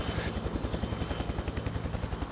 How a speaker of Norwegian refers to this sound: Og mm, det jeg merker med flyturen, er at det er veldig ruskete. Helikopteret blir slengt litt både hit og dit. Men faktisk en par ganger at helikopteret er helt over på sida, hvor jeg liksom ser rett ned i bakken.